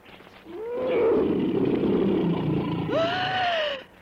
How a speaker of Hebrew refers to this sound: הביטו! אריה! אריה אמיתי!